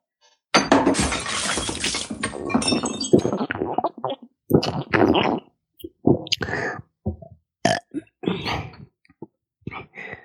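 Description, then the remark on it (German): Glasses clink together in a toast, a burst of clattering glass followed by a string of short, bright clinks at irregular intervals, fairly loud, with faint murmuring between them. “Prost”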